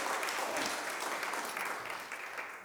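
A crowd applauds steadily, a dense wash of many hands clapping at an even level that tapers off only slightly toward the end, with no voices standing out.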